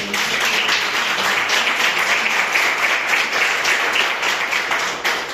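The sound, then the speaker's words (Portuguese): An audience claps steadily for several seconds, a dense, even wash of many hands with no single beats standing out, holding at a constant fairly loud level throughout, applauding in praise of the Lord Jesus. “Eu agradeço a oportunidade e as palmas que adorem ao Senhor Jesus.”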